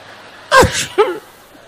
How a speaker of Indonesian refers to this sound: Anak sekarang ngeliat mendong aja bersin.